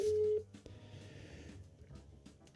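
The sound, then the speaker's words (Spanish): A phone call's ringing tone plays over a speakerphone held up to a microphone while calling someone's cell phone: one brief, steady, fairly loud beep, followed by quiet, muffled room noise with no talking. “Lo voy a poner en altavoz. Voy a ver si se escucha.”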